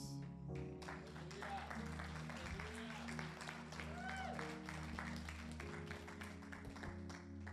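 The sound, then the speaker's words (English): An audience claps steadily and densely for the whole stretch, a continuous wash of many hands with no pauses. A low sustained tone and scattered voices sit underneath the clapping. “So I hope your applause isn't for me and the pain that I've had and the ability to stand before you.”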